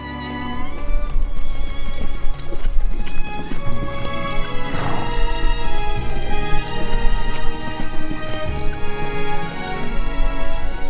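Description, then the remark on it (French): Steady clip-clop of a horse's hooves trotting in an even rhythm on the hard road of Lambèze at dawn, the rider urging the horse on, moderately loud, with sustained music playing underneath throughout. “Et maintenant, parti dès l'aube par la belle route de Lambèze, il pressait son cheval, pris d'une impatience qui l'étonnait lui-même,”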